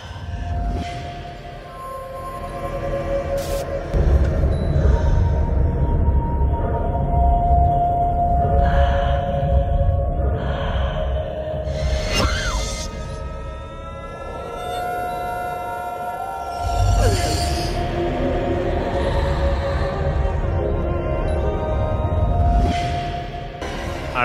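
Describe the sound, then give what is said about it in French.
Unsettling soundtrack from the VR horror game Home Sweet Home: low rumbling drones with long, wavering tonal wails and swelling noise bursts, dense and continuous throughout, no voices. “là où se passe ce son que vous venez d'entendre”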